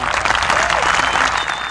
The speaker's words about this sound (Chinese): 掌声欢迎。